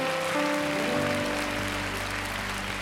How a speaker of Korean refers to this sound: 그 하나님께 한 번 더 영광과 감사의 박수 올려드릴까요?